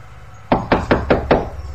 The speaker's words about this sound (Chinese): 用力敲了敲门，喊道：“您好，我是送快递的。”